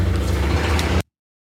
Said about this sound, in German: Das war ein Tracker oder ein Hubschrauber. Das war ein Motorrad und ein Arschloch, was draufgesessen hat.